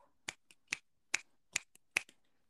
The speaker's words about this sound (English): Can we get a little snap, a little clap?